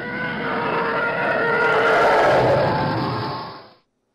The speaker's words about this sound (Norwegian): Veldig finurlig, den lyden der eh, du spiller av og til. Ja, De sier at det er en eh, elefant som er uh, eh, pitcha veldig ned, og så er det lagt ja. på noen sånne greier. Er, eh, har jeg mm. lest. Det er Tie Fightere som flyr nærme deg.